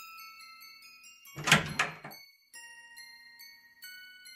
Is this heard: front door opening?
yes